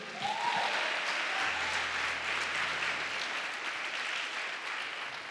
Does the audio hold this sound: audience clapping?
yes